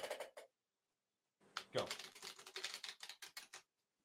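A short riffle of playing cards, then a longer, uneven flurry of rapid crisp clicks as two people shuffle parts of two decks together, fading out after a few seconds.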